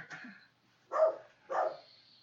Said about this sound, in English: We have a dog barking and clawing at the door.